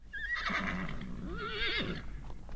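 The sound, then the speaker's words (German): A horse on a farm's large horse paddock at the foot of the Hausberg in Garmisch-Partenkirchen gives a loud whinny lasting about two seconds, its wavering, quavering pitch rising and falling before trailing off, with faint outdoor background noise and no talking. “Zum Bichlerhof am Fuße des Hausbergs gehört eine große Pferdekoppel.”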